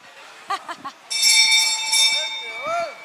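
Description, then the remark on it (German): A small tip bell on a bar counter in a tent is struck once, loud, its bright metallic ring shimmering on for a couple of seconds. A voice speaks just before the strike and again over the fading tone. “wir haben äh, bei uns hier an der Theke ähm, eine Trinkgeldglocke aufgestellt”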